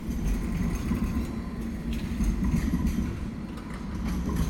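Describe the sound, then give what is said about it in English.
A tram rumbles steadily along George Street in Sydney, a continuous low mechanical drone with faint rail clatter and metallic squeals, sustained throughout without any voices. “Further down on George Street, a tram will glide by.”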